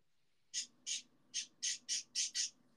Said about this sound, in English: Your bird's going crazy right now. yeah, they're loud. I don't know why they decided to be loud right now, but it's whatever.